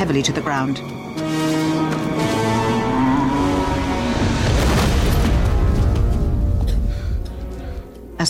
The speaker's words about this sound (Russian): Кто-то отползает в сторону в тот момент, когда тролль, раскачавшись, тяжело падает на землю.